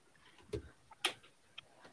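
sound effect, clock ticking sound effect

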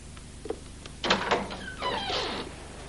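household object, door being opened

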